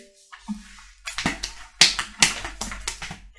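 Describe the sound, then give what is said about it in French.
Sharp, woody taps struck on a guitar mimic a white horse's clip-clopping hooves, an uneven galloping rhythm that starts after a brief quiet moment and continues to the end. “Mais oui, le voilà Un cheval blanc Oh là là J'ai pas bien fait les bruits je, m'entraîne à faire le, cheval sur la guitare.”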